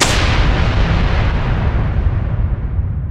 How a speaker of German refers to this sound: Wir hörten Holz und Glas splittern.